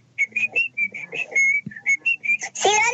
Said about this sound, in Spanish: Silbando para vos, ¿viste? Bueno, mira, así se escucha.